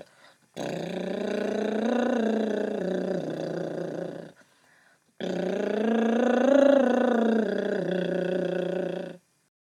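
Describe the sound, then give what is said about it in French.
Two long lip trills, done as a voice exercise, each a buzzing, fluttering hum that glides up and down in a simple melody. They are fairly loud, separated by a short breath-length pause, with no talking. “Et on le refait en chantonnant.”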